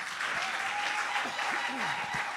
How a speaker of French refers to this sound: Soyez richement bénis. Acclamons encore le Seigneur.